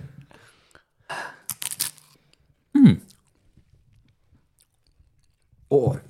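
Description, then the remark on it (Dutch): Someone takes a bite of cheese and chews, with a few short moist, crunchy bursts, followed by brief appreciative vocal sounds and quiet pauses in between. “je dan nu een hapje nemen?”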